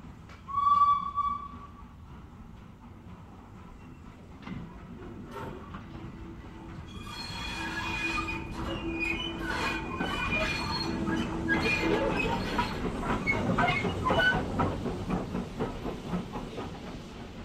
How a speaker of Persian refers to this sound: قطار بالاخره در ایستگاه توقف کرد